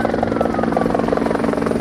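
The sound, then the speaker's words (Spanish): A helicopter flies, its rotor beating in a steady, rapid rhythm under a loud, continuous engine drone with no voices, ferrying firefighting crews to a forest fire in hard-to-reach terrain near Toga in the Serra d'Espadà, Castellón, Spain, on a windy day. “El fuego quema una zona de difícil acceso, lo que está provocando que los efectivos eh, los estén trasladando en helicóptero.”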